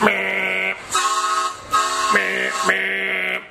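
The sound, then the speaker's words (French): A van horn honks in a rapid run of four or five loud, sustained blasts of shifting pitch, each cut off by brief gaps, with no talking, as Raw women's champion Becky Lynch arrives at the Performance Center. “eh oui, vous avez bien entendu ce bruit est celui d'un klaxon et pas n'importe lequel, celui d'une camionnette.”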